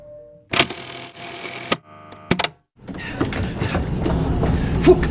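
tram running on rails

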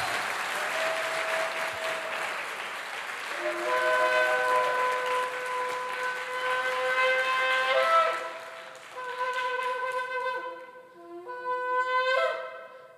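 trumpet blast

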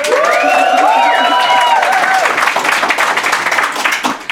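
audience applauding and cheering

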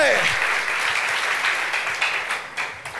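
audience applauding

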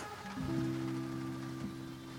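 rain falling

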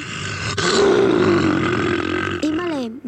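lion roaring

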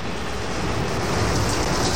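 rain sound effect

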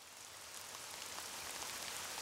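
rain falling

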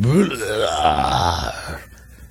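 loud burp

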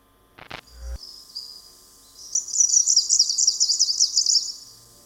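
greenish warbler song

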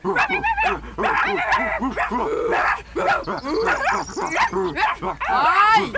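dog barking and yipping

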